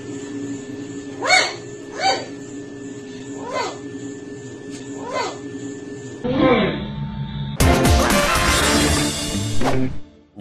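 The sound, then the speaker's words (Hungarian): A dog in a played video clip gives four short, tonal barks spaced a second or so apart over a steady hum, then the scene switches to a loud, dense burst of noise that drowns everything out. “Ennél rosszabb átkötéssel a kutyákról.”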